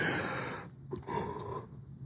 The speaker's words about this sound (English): Hold on. I yawn right there. Maybe I have to edit that out.